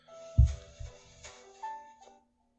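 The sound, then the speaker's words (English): A phone alarm set for 7:30 plays a short electronic melody of sustained chiming tones, with a soft low thump near the start. The alarm is steady, then cuts off after about two seconds. “And you give me shit about my phone, Erica. Look. It's muted. Why do you have an alarm at 7:30?”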